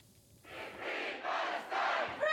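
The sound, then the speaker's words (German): A large crowd at a pro-Palestinian demonstration on a Saturday in Bern, Switzerland, chants loudly in rhythmic bursts, many voices shouting slogans together in a few repeated phrases, with a brief whistle-like tone near the end. “Pro-palästinensische Demonstration am Samstag in Bern. Die Stimmung ist aufgeladen. Heikle Parolen zu hören und zu lesen.”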